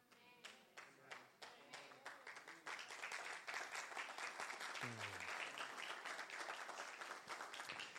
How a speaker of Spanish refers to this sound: Si usted lo entendió, eso merece un mejor aplauso.